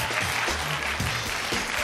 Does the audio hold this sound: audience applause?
yes